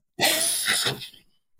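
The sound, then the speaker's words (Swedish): A fairly loud cough, one rough breathy burst with a second push near its end, trailing off into quiet within about a second, from someone who has been living in dust from an apartment renovation. No one speaks. “därför du hostar så mycket nu då?”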